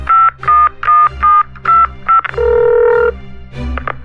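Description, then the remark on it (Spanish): A phone number being dialed: a quick, evenly paced run of about seven keypad beeps, loud, followed by a longer steady tone and a softer trailing one. “Márcale al migra.”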